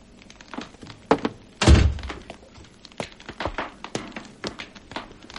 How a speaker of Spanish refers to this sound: Qué extraño. Y aún oigo sus pasos. Diríase que se aleja muy deprisa.